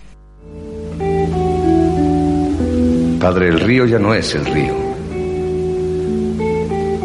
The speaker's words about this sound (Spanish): Y ahora cerramos con música. Sí, antes de pasar al próximo bloque vamos a escuchar a,